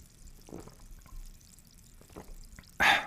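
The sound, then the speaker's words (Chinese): Quiet liquid sounds of sparkling water being poured for a toast, with a few soft splashes and drips, ending in a brief, louder bright fizzing burst. “可是我们今天在开始之前呢，还是要用气泡水给大家来干几杯哦，干几杯哦。”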